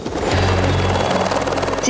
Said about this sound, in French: Et l'hélicoptère s'est élevé. Je le vois encore au-dessus de moi, puisque j'avais l'hélicoptère devant, à quoi À 50 mètres.